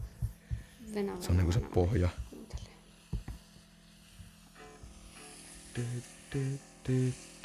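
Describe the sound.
A looping bass riff plays low and fairly quiet, its short notes recurring in a steady, evenly spaced pattern toward the end, with a man talking over the music earlier.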